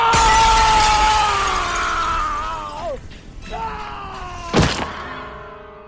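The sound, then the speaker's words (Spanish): The glass of a closed window shatters loudly as a man's body crashes through it, with bright ringing fragments tinkling and sliding down in pitch, then a second sharp crash as more pieces break and scatter near the end. “Rompiendo el vidrio, su cuerpo voló tres pisos, estrellándose contra el frío concreto de la calle donde quedó inmóvil, como muerto, mientras la gente lo contemplaba horrorizada.”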